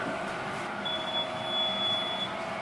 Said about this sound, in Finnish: Mikäs laite tää on, joka piippaa? Eli tää on nyt se meidän jätskilaite. Täällä on ihan tämmönen, tällä kiehutetaan vesi täällä sisässä, että vähän desinfioi.